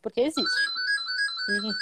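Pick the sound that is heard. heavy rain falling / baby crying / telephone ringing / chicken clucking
telephone ringing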